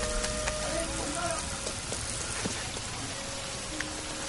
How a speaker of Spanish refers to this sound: La lluvia la atrapa a media calle.